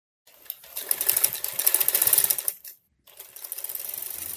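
A sewing machine runs in two bursts of rapid, steady mechanical stitching, fairly loud, with a brief pause between runs, at a home in Boyolangu, Banyuwangi, East Java, Indonesia, where dozens of face masks are being sewn.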